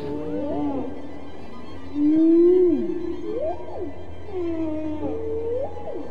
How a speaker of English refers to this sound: Dr. Payne's whale songs are now part of a concerto called And God Created Great Whales, played this week for the first time by the New York Philharmonic.